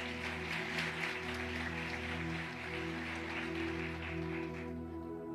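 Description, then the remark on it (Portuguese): An audience claps together in a dense, steady wave of applause over sustained keyboard chords, the clapping tapering off just before the end. “Pode dar uma salva de palmas para Jesus.”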